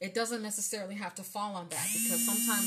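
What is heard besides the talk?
alarm going off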